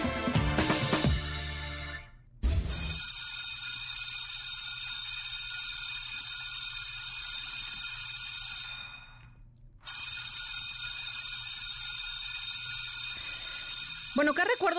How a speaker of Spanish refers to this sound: a la mente les vienen cuando escuchan la campana o la chicharra de la, de la secundaria o de la prepa, ¿no?